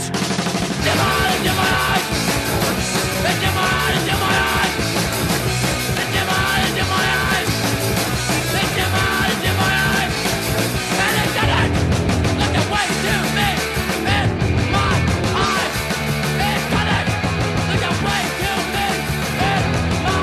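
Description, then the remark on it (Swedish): Loud, dense hardcore punk by a band from a town in Sweden plays throughout, with distorted guitars, pounding drums and harsh screamed vocals at a constant driving intensity, briefly shifting in texture partway through. “Äntligen kommer någon skrika nu i, i någon ort i Sverige.”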